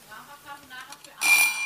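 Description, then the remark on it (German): A voice is heard briefly, then a bright, ringing bell sound cuts in sharply and sustains loudly to the end, shimmering with high metallic overtones. “Es hat geklingelt.”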